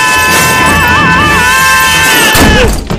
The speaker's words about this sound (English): because, as I said before, the plane was crashing.